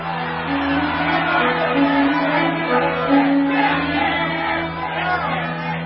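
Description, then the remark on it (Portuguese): A crowd gathered before Pilate at the Passover festival murmurs and calls out together, a dense, steady roar of overlapping shouts that holds at a fairly loud level throughout, with no single voice standing out. “Então, quando a multidão se reuniu, Pilatos perguntou:”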